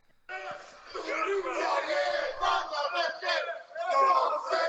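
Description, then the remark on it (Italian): A crowd of many voices shouting and chanting together in unison about false licences, loud and sustained with a rhythmic rise and fall. “Abbiamo prima l'originale coro che mi insegue”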